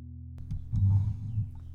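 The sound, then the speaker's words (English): A microphone being handled and adjusted: low, muffled thumps and rumbling bumps with a few sharp clicks, continuing for a couple of seconds with no talking. “Y'all done playing with your mic?”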